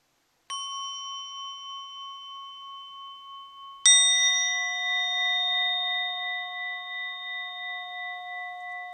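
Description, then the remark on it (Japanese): A Buddhist orin bell, one of two being played, is struck twice, the second strike louder. Each strike leaves bright, layered metallic tones that shimmer and ring steadily without fading much. No one speaks. “はいそんなわけで今回は2つの檻の音色をね結構たくさん鳴らせて堪能していただけてたら嬉しいです。”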